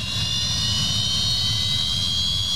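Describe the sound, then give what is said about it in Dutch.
A Fokker jet aircraft engine spooling up and roaring loud, a steady high whine layered over a deep rumble, holding at full power with no voices. “When you hear those tea start up, you know that's a fokker. And it's just such a amazing sound.”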